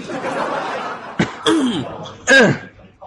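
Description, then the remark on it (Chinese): Two short, throaty coughs about a second apart, the second louder and harsher, set against a soft murmur of background voices, with a brief click of noise just before the first. “你我说咋还咳嗽两声呢？”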